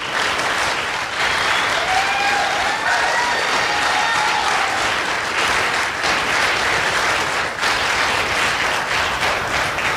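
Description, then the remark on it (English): A church audience applauds steadily for the full ten seconds to welcome the pastor, a dense, loud wash of hand clapping with a few faint whoops and cheers rising above it. “Come on, put your best hand clap together for him.”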